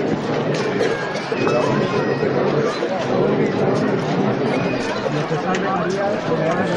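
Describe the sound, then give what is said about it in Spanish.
A large crowd murmurs steadily at a Good Friday street procession as the paso de palio passes through the San Juan neighbourhood, many overlapping voices blending into a constant babble with no clear words, holding an even, moderately loud level throughout. “el silencio que no termina de ser completo.”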